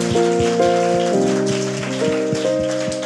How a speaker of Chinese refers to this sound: 所以我我真的觉得说，我们要再给啊我们的企划设计场部的团队一个掌声，好不好？他们真的很用心，Yeah！